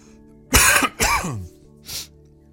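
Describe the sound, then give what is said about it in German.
Two loud coughs in quick succession, the second trailing off with a throaty rasp, followed by a softer, shorter third cough. No one speaks. “Ich sage, ich bräuchte eigentlich eine Mute-Taste hier, damit ich das mal eben rausschneiden kann, wenn ich husten muss.”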